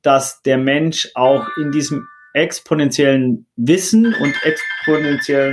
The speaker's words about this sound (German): das ist der Wecker von meiner Tochter